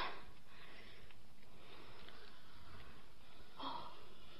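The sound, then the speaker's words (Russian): Faint breathing of a fainted, unconscious man being given ether, with soft sniffs and a slightly wheezy rasp, ending in one sharper inhaling sniff. No one speaks over the quiet background hiss. “Гляньте-ка, он мадемуазель Мишано, он дышит.”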